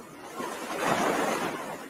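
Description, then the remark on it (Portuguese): Steady ocean surf washes in with a broad, hissing roar that swells toward the middle and eases slightly, fairly loud, with no voices. “Peço desculpas para quem tem medo de água, quem, né?”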